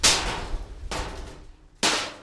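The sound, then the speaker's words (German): Loose metal sheets, hung in a tree by a farmer at the edge of a field to keep elephants away at night, clank together as the wind moves them. There are three clanks at uneven intervals, each a sharp bright clang that rings and fades, with no voices present. “Am Rand hat der Bauer Metallstücke in einen Baum gehängt. Sie sollen nächtliche Invasionen verhindern.”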